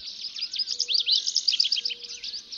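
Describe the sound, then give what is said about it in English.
A dense dawn chorus of many birds in the tree canopy of a canyon, chirping and trilling at once, high-pitched and continuous, with a few clearer repeated whistles rising out of the busy overlapping song. “The birds lower down join the chorus as the light reaches deeper into the canyon.”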